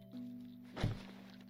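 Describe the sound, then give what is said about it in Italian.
A man's body slumps down onto a kitchen floor, his back coming to rest against the oven, with a single dull, heavy thud over a faint steady electrical hum. “Si accasciò sul pavimento, poggiando la schiena al forno”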